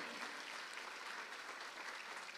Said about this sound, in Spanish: Si usted lo cree, le da palmas fuerte al Rey de la Gloria.